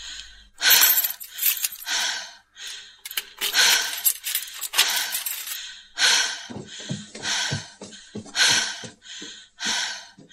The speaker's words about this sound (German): Während sie hastig nach ihren Hausschlüsseln in ihrer Tasche kramte,